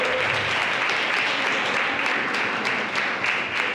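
Audience applause fills the moment, a dense, steady wash of many hands clapping at once, holding at an even, fairly loud level for several seconds with no talk over it.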